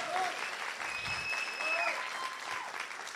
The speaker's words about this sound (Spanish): Pero denle un aplauso fuerte. Estoy hablando de alabanza. I'm talking about praise.